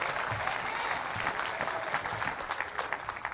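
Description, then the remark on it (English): A church audience claps together as a 'clap offering' to the Lord during a sermon, a dense, steady burst of applause, many hands overlapping into a continuous crackling wash that holds at an even loudness throughout. “Oh, somebody ought to give the Lord a clap offering.”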